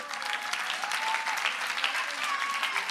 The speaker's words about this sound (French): donc on peut faire un maximum de bruit pour eux. Jusqu'à ce qu'ils arrivent sur scène.